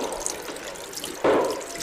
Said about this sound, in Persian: دلاک مرد میان سالی از راه رسید و مشغول کیسه کشیدن و سپس با دلچه چندین و چند بار آب رویش خالی کرد